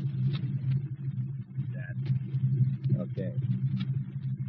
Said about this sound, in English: Start the engine. Breathe in, smart guy. To make it easy for yourself.